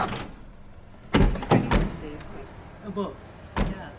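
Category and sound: vehicle, car pulling up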